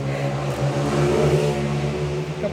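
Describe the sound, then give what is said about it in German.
A motorcycle engine drones loudly, a steady low rumble with a slight rise in pitch as it rolls past, continuous throughout with no voices. “Okay, das war ein Auto, äh, ein Motorrad, Entschuldigung.”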